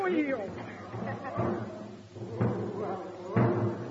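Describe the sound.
A military man walking up a line bangs a drum in a slow, steady beat, about four heavy thumps roughly a second apart, with indistinct voices and chatter murmuring in the background.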